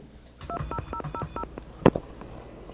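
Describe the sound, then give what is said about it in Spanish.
A rapid string of telephone keypad tones, about six or seven short beeps in quick succession, as someone presses zero to skip a customer service recording, followed by a sharp click, with no one talking. “le doy cero simplemente para saltearme, pero eso hace que se colgue.”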